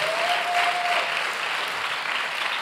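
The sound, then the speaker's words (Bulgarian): A church audience claps together in sustained, dense applause offered to Jesus Christ during a sermon, filling the space steadily for a few seconds, with a faint tonal ring briefly audible early on and no one speaking. “О, ако вярваш в това, защо не му дадеш едно дарение на ръкопляскане?”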